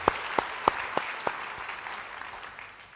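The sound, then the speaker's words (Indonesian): A church audience applauds for God during a sermon, a dense wash of many hands clapping with several sharp, louder claps standing out early on, then fading slightly toward the end. No one speaks. “Yang jawab tidak, beri tepuk tangan bagi Tuhan.”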